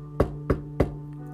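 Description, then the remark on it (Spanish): Three evenly spaced knocks on a door at the bottom of a staircase, each a solid, sharp thump with a short ring, over a faint steady hum; no one speaks. “Al final de la escalera había otra puerta. Juan tocó tres veces”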